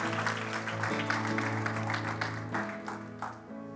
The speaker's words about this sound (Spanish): Deles aplauso fuerte a Cristo.